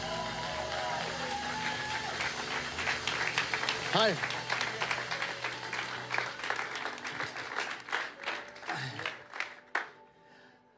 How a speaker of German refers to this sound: Hey, begrüßt mir mit einem Standing Ovation, würde ich sagen, oder? Weil wir Ehre geben, wem Ehre gebührt. Mit einem Riesenapplaus.